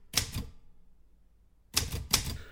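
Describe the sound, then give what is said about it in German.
Office typewriter keys clatter in two short bursts of rapid strikes, separated by a pause of about a second. The sharp clicks sound alone, with no voices. “Dort war das Klappern der Schreibmaschinen ein abstraktes Hintergrundgeräusch, das nichts mit Wörtern oder Sprache zu tun hatte, sondern nur Teil des Büros war.”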